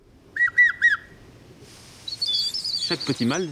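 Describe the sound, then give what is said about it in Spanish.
A person whistles an imitation of a Eurasian bullfinch's song: three short piping notes, a brief pause, then a longer, higher whistle that breaks into wavering downward slides. Clear, with no talking. “Llama al Bouffron Pivron, un ave que tiene un canto un poco triste, incluso poco chiflado en virtuosidad, pero la ave es muy linda.”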